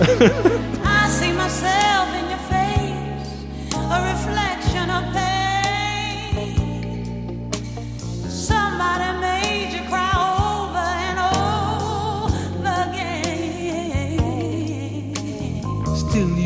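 A funky soul duet plays at full volume, with sung vocal lines weaving over a steady, punchy bass groove and bright band accompaniment throughout.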